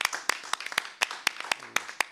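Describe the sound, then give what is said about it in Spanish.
An audience applauds, with a dense wash of clapping and sharp claps standing out in a steady rhythm of about four per second. It stays fairly loud throughout, with no voices. “Qué preciosura, un aplauso, ¿eh? un aplauso.”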